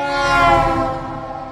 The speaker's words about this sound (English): I know that sounds complicated, but a common example is a car driving by blasting its horn. To our ears, we hear the pitch of the horn increase and then decrease as it zooms by.